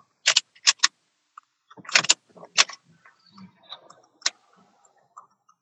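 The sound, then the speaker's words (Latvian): Car keys jangle in sharp metallic bursts at the ignition, followed by a brief low mechanical churn as the car engine is cranked but fails to start; no one speaks. “Mēģināsim vēl iedarbināt. Nē, kas nesanāk.”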